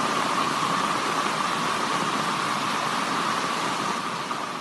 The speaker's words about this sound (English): A lot of rain. Like we know it rains in London.